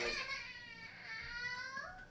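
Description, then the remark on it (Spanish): A child cries in a continuous, high-pitched wail that rises and falls, fairly loud, lasting a couple of seconds with no other talk over it. “hay uno llorando, uno lesionado.”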